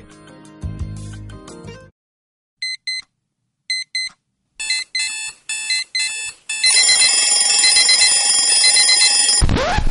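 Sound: alarm clock ringing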